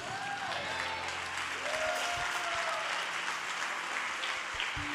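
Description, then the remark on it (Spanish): An audience breaks into steady, dense applause that holds loud and even for the full five seconds, with a faint murmur of voices and low tones beneath the clapping. “Si yo estuviera sentado ahí, yo hubiera dado un buen aplauso, pero yo estoy acá arriba.”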